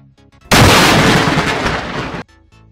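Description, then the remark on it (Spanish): A close, violent thunderclap from a lightning strike heating the air bursts in suddenly, a loud cracking roar that rumbles heavily for nearly two seconds before cutting off abruptly, with only faint quiet sounds around it. “Este sonido se llama trueno y se genera cuando un rayo calienta el aire a su alrededor a una temperatura de 30.000 grados Celsius y puede alcanzar de 120 a 130 decibeles si cae a una distancia cercana.”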